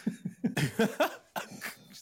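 A harsh morning coughing fit: a rapid string of throaty coughs, a few small hacks building into louder, raspy bursts, then a short pause before a couple more coughs.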